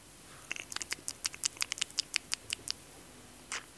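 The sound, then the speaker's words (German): A quick run of about fifteen dry crunchy clicks, like a rabbit nibbling food, made by someone imitating the munching, ending with a soft breathy rustle. “so klingen auch Kaninchen, wenn sie essen, das ist richtig.”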